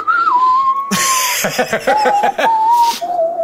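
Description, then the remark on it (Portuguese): A person whistles a short melody, the whistled part of a well-known film theme, clear, with steady sustained notes that step between pitches. Midway the tune breaks into a burst of breathy laughter before the whistling resumes. “isso aí é um assovio que tem na música, né?”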